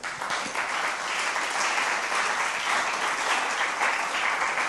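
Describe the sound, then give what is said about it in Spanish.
An audience at a church service applauds God steadily, a dense, even wash of many hands clapping at once that holds at a fairly loud level throughout, with no voices standing out. “Venga, denle un aplauso a Dios, por favor.”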